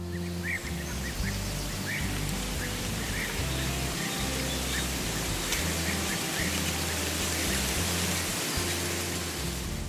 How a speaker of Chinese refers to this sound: 下雨淅沥淅沥的声音，或是电风扇运转的声音，这些其实都算是白噪音哦。